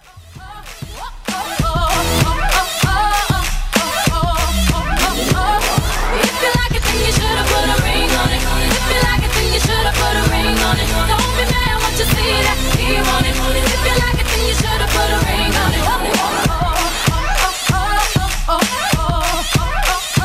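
A pop song plays steadily at full volume, with a driving, sharply punctuated beat, deep bass and a layered vocal melody, fading in over the first couple of seconds and with no talking over it.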